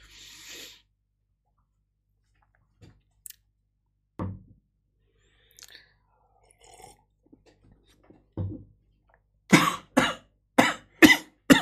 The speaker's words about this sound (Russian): Водой подавился.